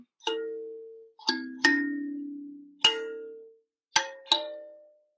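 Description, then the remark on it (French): A short chiming jingle of six bright metallic strikes in an uneven melodic pattern, each ringing out and decaying, played alone and clearly with no talking. “Et pour terminer cet épisode, pour terminer cette vidéo, eh bien, euh, je te fais le petit jingle.”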